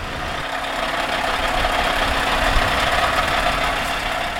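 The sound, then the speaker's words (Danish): A truck engine runs steadily at an airfield in heavy snowfall, where trucks are being test-driven in and out, a continuous low rumble with a broad hiss over it, holding an even level throughout with no voices. “Lige nu der sner det ret hæftigt her på flyvepladsen, og der kører lastbiler ud og ind.”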